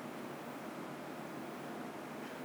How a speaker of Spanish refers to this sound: Siente el agua, el sonido.